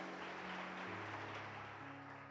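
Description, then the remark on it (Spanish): A church audience gives a loud round of applause to God, the King of Kings, in a steady, dense wash of clapping, with sustained low keyboard or organ notes held underneath throughout. “Y dale un fuerte aplauso al Rey de Reyes.”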